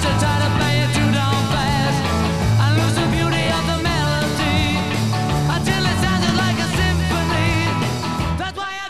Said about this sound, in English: Okay, it's so it's the slap. It's some of that slap back, slap back delay, a quick echo. Yeah, that really makes it.